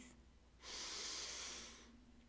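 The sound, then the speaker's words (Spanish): A single slow, deep breath drawn in through the nose during a guided breathing exercise, a soft airy hiss that swells for about a second and then fades, with no talking. “Pues bien, te invito a tomar una respiración profunda Inhala por la nariz.”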